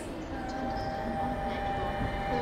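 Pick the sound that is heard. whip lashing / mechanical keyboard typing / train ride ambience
train ride ambience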